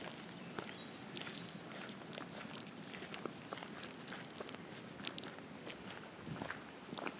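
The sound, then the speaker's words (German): Footsteps walk around a small house at an unhurried, slightly uneven pace, heading to look at its water wheels and pumps, each step a soft scuffing crunch over a constant faint hiss of background noise. No one speaks. “Jetzt gehen wir vielleicht um das Häuschen rum und gucken uns die, die Wasserräder und die Pumpen an.”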